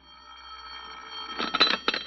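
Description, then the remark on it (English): A telephone bell rings in a home, a faint steady tone swelling into loud, jangling bursts of ringing with a brief pause between them, and no voices. “So the next day, during the autopsy, you sit at home quietly in the chair by the phone, waiting for it to ring.”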